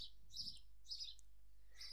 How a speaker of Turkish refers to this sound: Bugün de eşyalarımı bahçeye taşıdım. Hava çok güzel ve ha, içinde kendimi hapsettiğim oda çok boğucu geliyor. Ve dışarısı güzel, serin, hafif bir rüzgar var. Ee, belki kuş seslerini de duyuyorsunuzdur.